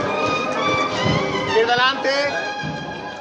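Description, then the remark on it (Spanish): The Holy Week float of María Santísima de la Esperanza of the Cofradía del Perdón passes on Holy Wednesday evening, heard from the carrera oficial at the Asociación de la Prensa: a steady, loud wash of crowd voices and shuffling footsteps, with sustained, wavering instrumental tones rising and falling over the din. “Y volvemos a esta carrera oficial, a esta sede de la Asociación de la Prensa, y estos son los sonidos que nos llegan del paso de María Santísima de la Esperanza de la Cofradía del Perdón en esta tarde del miércoles santo”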